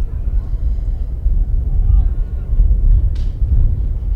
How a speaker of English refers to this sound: Can hear that wind kicking up in our crowd mic.